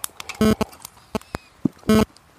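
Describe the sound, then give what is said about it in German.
Rustling and clicking as a man unpacks his tobacco pipe while sitting outdoors in the evening, with two louder crinkly bursts and scattered small taps and scrapes in between, no voices. “packt die Pfeife aus. Moment. Tabakspfeife.”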